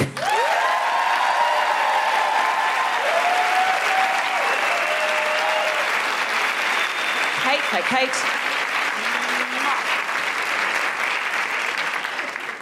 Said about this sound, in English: Put your hands together and go crazy for Kate Bolick!